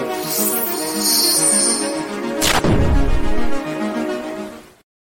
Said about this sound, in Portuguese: Põe aí, põe aí, relógio, uma vinhetinha. Relógio não tô ouvindo nada.